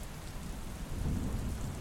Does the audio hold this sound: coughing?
no